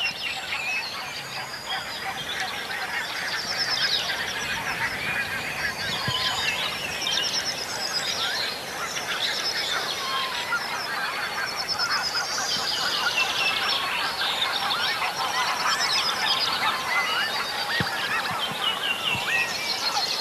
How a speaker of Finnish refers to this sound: Ei, kyllä se nyt oli aika hanhien peitossa. Kuunnellaan vähän aikaa tätä lintumaailmaa.